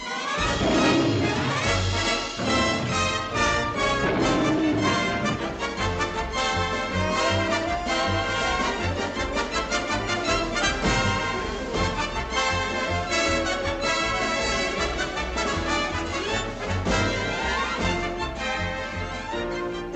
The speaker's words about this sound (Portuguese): Isto era o genérico de uma série televisiva, sabes de quê? Isto é um gato e um pequeno rato.